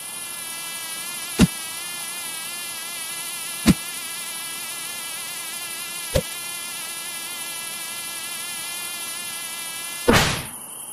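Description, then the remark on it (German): A steady, high-pitched whine of mosquitoes drones throughout, broken by three sharp smacks spaced a couple of seconds apart and a louder, scuffing hit near the end. “Denn das Problem bei den Mücken ist relativ eindeutig dass sie erstmal von sich aus, von ihrem Sound, von diesem Summen”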